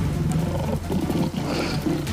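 A tiger roars loudly, a deep, rumbling growl that swells and surges for about two seconds with no voices present.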